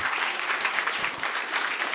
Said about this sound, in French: Je peux vous donner une bonne main d'applaudissement? Hey, vous êtes un beau public. Donnez-vous une bonne main